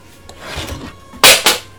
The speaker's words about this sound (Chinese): 我家猫把我门打开了。刚才 哇，你家猫这么厉害吗？ 嗯，它可厉害了，它刚刚把门打开了，然后它进来了。